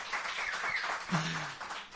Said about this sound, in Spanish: Bueno, eh, un aplauso